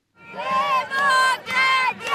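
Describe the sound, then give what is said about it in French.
A crowd of protesters in Israel, opposing the government's bill to limit the power of the courts, shouting the chant "Démocratie" (democracy) in three loud, sustained bursts, many voices merging into one strong, tonal roar with brief dips between phrases. “Démocratie hurle les manifestants.”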